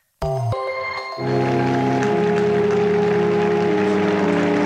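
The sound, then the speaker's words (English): A crowd of about 50,000 mourners breaks into sustained, dense applause for the coffin of the late Pope Benedict XVI as it arrives at his funeral service; the applause swells after about a second and holds steady. A brief ringing tone sounds at the start, and steady tones persist beneath the clapping. “So that's the sound of mourners applauding the coffin of the late Pope Benedict XVI as it arrived at his funeral service.”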